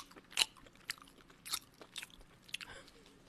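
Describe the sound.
Loud, open-mouthed chewing of food while eating a meal: about six wet smacking crunches in an uneven rhythm, each a sharp bright burst, with no talking over them.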